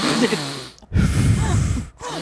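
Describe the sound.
A voice imitates the heavy, congested breathing of a person sitting still with a blocked nose: two loud snorting breaths, one drawn in and one pushed out, separated by a short pause.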